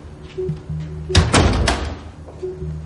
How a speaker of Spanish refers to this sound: Uno de los hombres mete a Legasov en un cuarto de baño. Un guardia cierra la puerta por fuera.